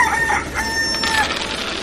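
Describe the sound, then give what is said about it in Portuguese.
A person imitates a rooster's crow, one drawn-out, high-pitched cock-a-doodle-doo lasting under two seconds, loud over a steady background hiss. “Então eu vou pro, eu vou pro lado que a criança tá vindo, eu cacarejo, né? Aquele barulho de galo quando vai acordar a fazenda.”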